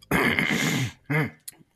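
Someone clears their throat loudly: a long, rough, rasping rumble, then a shorter second clearing, and finally a faint click before silence.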